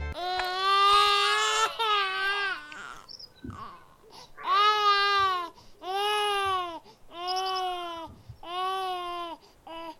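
newborn baby crying

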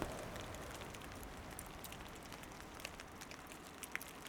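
light rain falling

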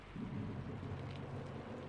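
rain falling with thunder

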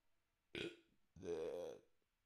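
burp

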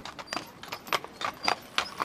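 horse-drawn carriage hooves clip-clopping

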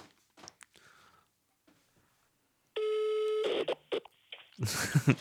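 telephone ringing tone

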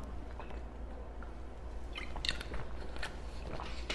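drinking water

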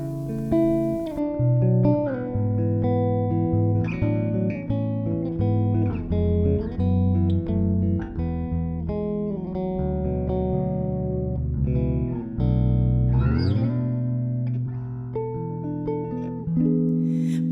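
song being played

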